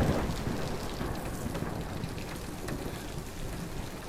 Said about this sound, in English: Uh, I'm not used to the rain. um, do you, do you, do you, do you mind if I waited out here for a bit? Looks like it's getting worse out there.